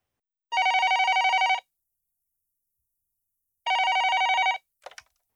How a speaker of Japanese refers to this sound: 電話が鳴っています誰からの何のお誘いでしょうか